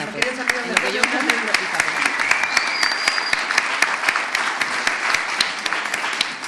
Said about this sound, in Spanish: Ahorita que vamos a darle un aplauso a los de TV, eh, una mano.